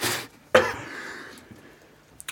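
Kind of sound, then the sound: human body sound, cough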